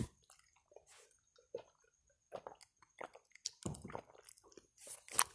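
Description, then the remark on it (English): Quiet mouth sounds of someone drinking water: wet sips, gulps and swallowing clicks at an irregular pace, with no talking over them. “Had to get some water there for a minute.”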